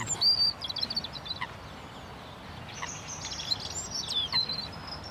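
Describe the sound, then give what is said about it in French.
A European robin sings thin, very high-pitched warbling phrases in two bursts separated by a short pause, over a steady low background rumble. “Ah, nous avons un rouge-gorge avec des notes très aiguës.”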